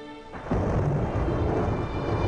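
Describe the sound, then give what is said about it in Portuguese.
A deep, loud rumble of thunder on a dark stormy night rolls in abruptly after a brief quiet moment, then keeps growling steadily with a broad, stormy roar and no one speaking. “Numa noite escura de tempestade, Bruneilda se encontra com o centurião no portão principal desta loja.”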